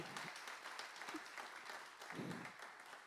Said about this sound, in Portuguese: Você pode dar outra salva de palmas ao Senhor? Aleluia!